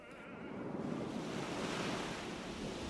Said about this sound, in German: Und mein Vater, der war auf einem Boot. Doch dann brach ein Sturm aus. Die Leute kreischten vor Angst.